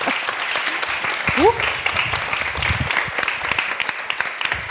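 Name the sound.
audience applause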